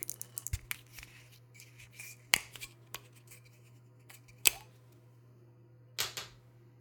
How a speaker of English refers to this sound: The bottle is capped with a black plastic screw cap. All right, let's drink. Let's open this bottle up. Screw cap.